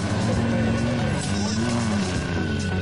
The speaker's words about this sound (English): What kind of truck was that? Couldn't tell.